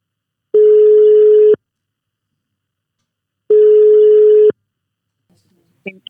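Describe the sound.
Two long, steady beeps of a phone ringback tone while placing a call, each about a second, spaced a couple of seconds apart, loud, then the line picks up as a voice briefly starts.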